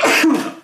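A single loud sneeze: a sharp, breathy burst followed by a short voiced tail that fades quickly. No talking.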